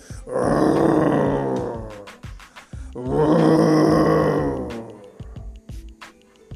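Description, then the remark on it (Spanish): Two loud, deep roars, each lasting about two seconds with a brief pause between them, rough and rumbling, followed by a few faint clicks and rustles. “Y cuando vio a la rana que salía del pantano, se la acercó y lo oyentó con fuertes rugidos.”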